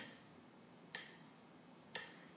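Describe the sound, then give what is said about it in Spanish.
Crisp metronome ticks sound at a steady 60 beats per minute as the pulse for a breathing exercise counted in eights, two sharp clicks exactly one second apart, clear over a faint background hiss. “Vamos a escuchar la pulsación aquí.”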